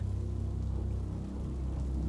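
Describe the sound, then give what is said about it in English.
Soft, steady rain patters continuously in the background, a low, even hiss of drops with no voices or other sounds over it. “My sister finishes speaking, and then there is silence silence, and the gentle patter of the rain.”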